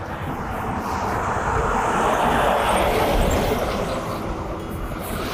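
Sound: passing car traffic noise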